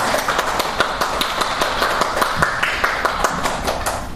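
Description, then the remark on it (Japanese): An audience applauds together in thanks for the preacher who delivered the day's sermon, a steady patter of many hands clapping at once with sharp overlapping claps continuing at an even level for several seconds. “感謝を込めて拍手をお送りしましょう”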